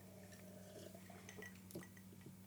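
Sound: ice clinking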